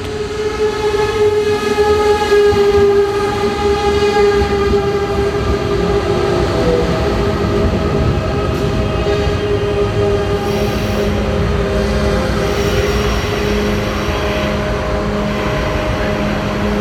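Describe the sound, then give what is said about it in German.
An ICE high-speed train rumbles loudly and steadily at the railway station in Coburg, its engine whine and metallic tones humming over a constant rolling drone, with no voices. “Ja, das ist auch der einzige ICE halt, glaube ich, äh, an einem, so am Tag.”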